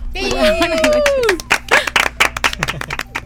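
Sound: clapping in studio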